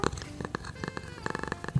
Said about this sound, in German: Katzenschnurren.